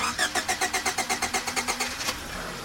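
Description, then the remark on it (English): A red SUV's engine cranks with a rapid, even series of rhythmic chugs for about two seconds, then catches with a sharper burst and settles into a low, steady idle. “Surinder, meanwhile, was having trouble starting the car.”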